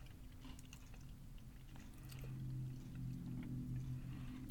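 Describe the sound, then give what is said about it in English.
Quiet chewing of potato chips: soft, irregular crunches and mouth noises continuing steadily over a low background hum, with no one speaking. “And the chip um, is definitely more grainy than you'd think for a potato chip.”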